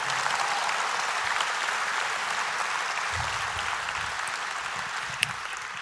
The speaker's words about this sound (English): Somebody needs to clap right there.